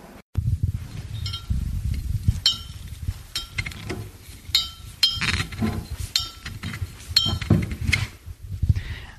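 A bottle of Tomàs Cosiner wine, a variety from El Vilosell in Les Garrigues, being handled and opened, with a series of bright, ringing glass clinks at irregular intervals over a steady low rumble. No one speaks.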